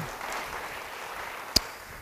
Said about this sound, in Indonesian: Yang mau demikian beri tepuk tangan bagi dia.